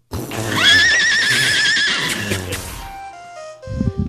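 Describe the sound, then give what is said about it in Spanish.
A horse whinnies loudly, a long wavering neigh lasting nearly three seconds that fades out, followed by a brief burst of low rustling or stamping at the end. “¡Mi caballo, mi caballo, mi caballo!”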